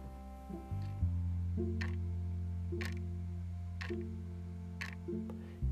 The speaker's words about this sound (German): die Uhr tickt.